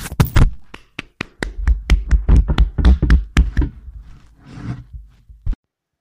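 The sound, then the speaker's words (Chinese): Scattered audience applause at a storytelling event, welcoming a teacher to speak: a sparse run of sharp, individual hand claps at an uneven pace, thinning out toward the end with one last clap before silence. No one speaks. “掌声有请”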